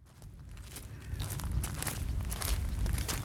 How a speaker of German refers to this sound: auf Schotterweg, wie der Weg oder Kiesweg, Geröllweg, wie auch immer, wie der Weg war in, äh, in, auf den Bergen, sind wir da so entlang marschiert